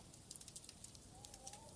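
A quiet fireplace fire crackles with scattered, irregular pops over a steady low rush of winter wind, and a faint whistling tone rises near the end. No one speaks.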